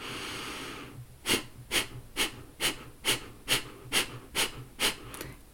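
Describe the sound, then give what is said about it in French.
About ten sharp, forced exhalations through the nose during a breathing exercise, the belly contracting as the navel is pulled toward the spine, follow in a quick, steady rhythm, each a short breathy puff, after a soft hiss of breath at the start. No one speaks. “Et l'air est expulsé de façon forcée. On doit entendre l'air qui sort du nez.”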